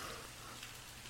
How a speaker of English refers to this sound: And I love hearing it because we're having a nice steady rain. It's not violent like it usually is lately. So you might hear it in the background, but you'll have to bear with it because I just love it. It puts me in a restful state.